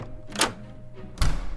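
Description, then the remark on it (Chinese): A heavy front door opens with a sharp mechanical click, followed moments later by a deeper, louder thunk as it swings and knocks. No voices are heard. “就在这个时候，外面传来大门被打开的声音。”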